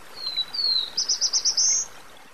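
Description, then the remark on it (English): A songbird sings a single clear phrase in a forest: two thin, rising whistles, then a quick run of five buzzy notes ending in a longer drawn-out buzz, over a soft outdoor hiss. “with artificial intelligence, they're getting better at picking apart the songbird chorus isolating the calls of species like the black throated blue warbler, a focus of the annual survey.”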